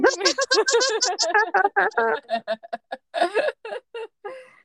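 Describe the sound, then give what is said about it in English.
A voice imitates a chirpy, elated creature giggle, the noise creatures in a movie make when walking around: a rapid string of high, bubbly voiced bursts, fairly loud, breaking into shorter choppy pulses toward the end. “you know, like that, just that little weird, chirpy, elated noise that they make when they're walking around.”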